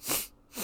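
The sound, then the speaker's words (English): Two quick, breathy nasal snorts, like a short stifled laugh through the nose, separated by a brief pause. Moderately loud, with no speech alongside. “You know, you you blow a little extra, you just snort a little bit, and then you upvote it”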